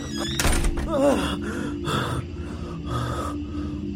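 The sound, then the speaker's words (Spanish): An automatic door shuts with a single dull thunk near the start, followed by a sharp gasp and some breathy vocal sounds over a steady low hum. “Me asombré al ver el automatismo de la puerta.”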